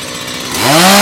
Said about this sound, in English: Oh, I'm literally going to go towards the chainsaw.